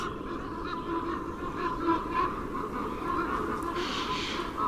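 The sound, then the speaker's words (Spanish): Ravens croak in the distance in a snowy forest after a storm, hoarse calls repeating irregularly over a steady outdoor background, with no voices present. “Lejos graznan los cuervos.”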